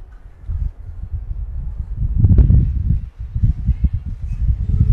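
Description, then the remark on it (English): A gust of wind blowing from east to west buffets the microphone during a ball game with a low, rumbling roar that rises and falls, swelling strongest midway through, with no voices. “Again, you can hear that wind. It's a pretty good gust of wind coming from east to west.”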